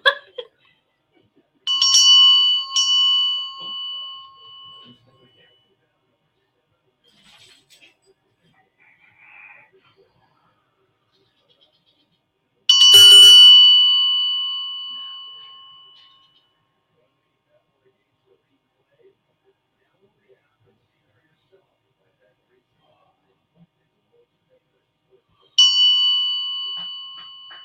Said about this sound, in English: So this is the India Indian bell. All right, so I'll do this again. Hold on, I think. All right, there it is.